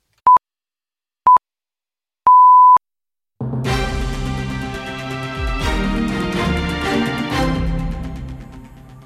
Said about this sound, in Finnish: Nyt tarkistakaa, kellonne on aikamerkin aika. Ja 19 uutiset.